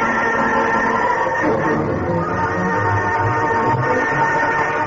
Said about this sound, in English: He noticed the speed of the train was decreasing, and he knew the trestle was less than a mile ahead.